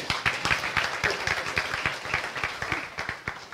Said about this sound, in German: Super. Applaus